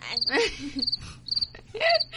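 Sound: cricket chirping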